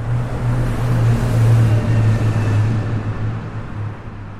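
A steady low rumble of city traffic with a droning engine hum and broad road noise, continuous and fairly loud throughout, with no voices.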